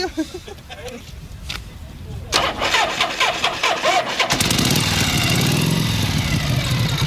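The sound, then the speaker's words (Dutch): A Harley motorcycle engine cranks and sputters, struggling to catch on a very cold day with thick oil and an engine not yet properly warmed up, then roars to life and settles into a loud, steady rumble, with a voice audible early on. “Dus ja, vandaar dat hij eh, nu niet 1, 2, 3 wil starten natuurlijk.”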